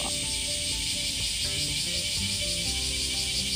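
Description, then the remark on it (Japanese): A steady, dense drone of cicadas in a park in midsummer fills the air with a bright, continuous buzz, loud and unbroken throughout, with faint low background rumble beneath it. “今日は真夏の公園からお送りしますセミの音聞こえるでしょ”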